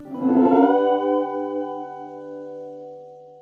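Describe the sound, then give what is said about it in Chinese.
A reverse reverb effect of the kind used in shoegaze music: a washy, smeared swell builds up over half a second into a single sustained, harmonically rich tone that rings on and slowly fades. No voices. “例如说，使用这样的失真效果，混响，尤其是反向混响，”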